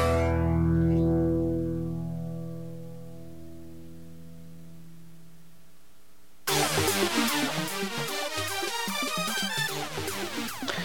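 A rock song cover with effects-laden guitar: a sustained chord rings and slowly fades with echo, then the music abruptly bursts back in, loud, dense and distorted. No vocals or talking.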